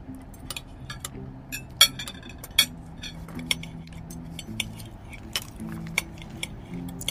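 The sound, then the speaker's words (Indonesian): Metal cutlery clinks and scrapes against plates as people eat fried chicken for lunch, in irregular, sharp taps throughout, moderately loud, with a low steady hum in the background and no talking. “Sayang, ini aku masakin ayam goreng buat kita makan siang. Hmm, enaknya. Sini yuk, kita makan bareng.”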